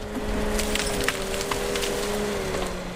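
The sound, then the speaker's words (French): A forestry harvester head felling a tree: a steady machine drone with a faintly wavering hum, broken by sharp, irregular cracks and splintering of wood. No one speaks. The harvester is a big tractor with an arm and a felling head that goes down to the foot of the tree and cuts it. “Voilà, vous avez la tête d'abatteuse, l'abatteur ici, qui est une sorte de, gros tracteur avec un bras, avec une tête au-dessus qui remplace en fait le bûcheron et donc il descend au pied de l'arbre, qui coupe l'arbre”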